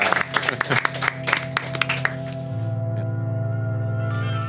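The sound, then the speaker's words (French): A short burst of clapping from the audience in the room, with sharp, irregular hand claps for about two seconds, then it fades as a steady sustained musical tone with a low hum continues alone. “Est-ce, est qu'on se donne une main d'applaudissement?”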